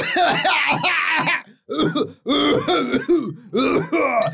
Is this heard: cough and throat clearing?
yes